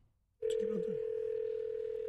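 A telephone line clicks open after a brief silence, and a steady, fairly loud dial tone hums continuously to the end, with a few faint short DTMF tones underneath as dialing begins to call radio and television personality Wayne Allyn Root.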